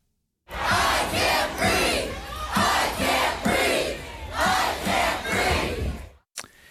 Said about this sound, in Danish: Ja, jeg kan ikke trække vejret, råber demonstranterne her, som et ekko af George Floyd øh, i forbindelse med, at han blev slået ihjel af politiet.